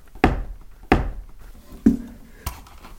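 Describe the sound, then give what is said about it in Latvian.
Four heavy footsteps thud while climbing up wooden stairs at an uneven pace, each a dull, resonant knock with a boomy low end, the third ringing slightly longer. No one speaks. “Šīs ir koka trepas. Var uzkāpt augšā.”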